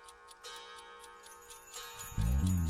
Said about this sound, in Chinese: 再想象一下啊，你睡到半夜的时候，听到了滴答滴答的声音，